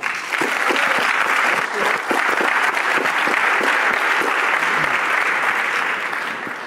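A room full of people claps steadily for several seconds, the dense applause holding at a loud, even level before tapering slightly at the end.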